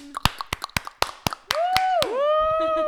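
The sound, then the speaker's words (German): Group clapping to congratulate someone on a grade of 2 on a bachelor's thesis, in a steady, even rhythm, about eight crisp, loud claps. Partway through, a sustained voiced whoop slides up and down in pitch over the claps and trails on alone. “Ach so, das jetzt klatschen wir alle mal.”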